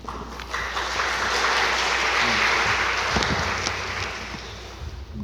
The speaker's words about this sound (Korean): 박수로 환영하실까요?